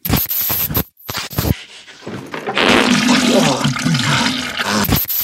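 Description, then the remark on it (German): A toilet flushes with a loud, rushing gush of water that swells after a couple of seconds and keeps surging, preceded by brief clattering and scraping sounds. “Müssten mal kurz für kleine Jungs.”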